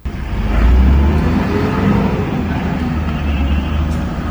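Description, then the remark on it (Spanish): Steady highway traffic noise on the Pan-American Highway at La Galera, with a deep engine rumble that swells in the first second, then holds as a continuous roar of passing vehicles with no voices. “Es un pickup que persona que anda bajo los efectos de alguna eh, droga o alguna bebida estupefaciente, pues eh, ha causado lo que es el tráfico vehicular acá en la carretera panamericana, a la altura de la famosa llamada galera.”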